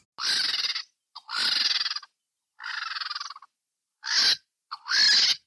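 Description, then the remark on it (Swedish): A vulture gives a series of five harsh, raspy hissing calls in a sound effect recording, each about half a second to a second long, loud with short pauses between, and no voices. “Ja, men så här kan en gam låta till exempel.”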